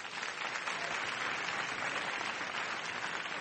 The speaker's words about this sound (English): And um, may I just invite one more round of applause for the person who makes all of this possible, Robert Rosenthal.